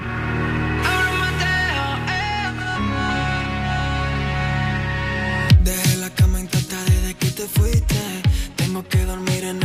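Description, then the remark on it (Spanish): A pop song plays loud and clear, opening with sustained synth chords and a melodic line before a punchy beat with strong kick drums and bass kicks in halfway through. “Bueno, claro, y ya que es madre, así que dos por uno os vamos a dedicar una canción que suena así de bien.”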